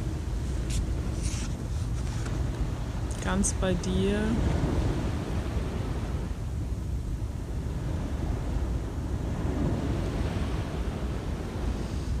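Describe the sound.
Steady ocean surf rushes continuously in the background, a broad low roar with gentle swells, while a calm voice speaks briefly over it near the start.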